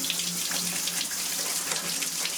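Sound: water running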